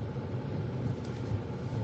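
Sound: car interior road noise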